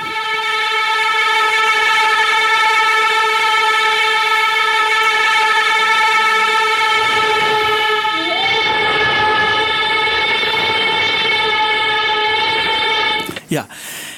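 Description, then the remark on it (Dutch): A loud, steady electric guitar drone imitating a train horn holds for about thirteen seconds, shifting slightly in pitch midway before ending in a brief swooping cutoff. “Het is een elektrische gitaar die wat op een trein lijkt.”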